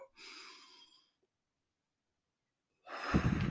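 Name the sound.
deep inhaled breath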